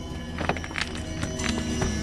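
Horse hooves clop unevenly as a group of horses walks down from a rise into a hollow, one horse leading and the others following, a handful of moderately loud thuds over a steady low rumble, with no voices.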